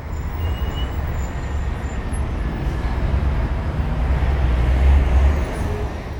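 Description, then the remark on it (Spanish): Steady city street traffic with cars and motorcycles, a continuous low engine rumble that swells slightly as vehicles pass, with no voices. “Las señales de tránsito, los carros, las motos y los peatones.”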